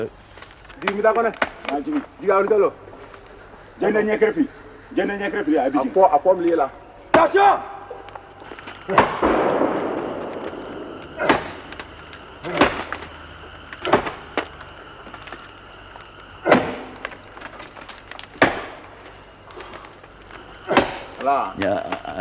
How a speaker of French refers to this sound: un, arrachement, un arrachement de la fibre qui a l'air vraiment d'être euh, euh, un, un adieu à la vie de l'arbre.